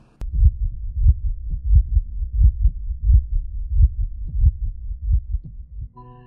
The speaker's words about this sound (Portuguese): Eu só podia ouvir as batidas do meu coração.